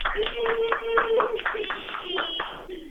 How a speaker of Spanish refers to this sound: Hasta aplausos Se lo ganaron, se lo han ganado y se han ganado mi corazón.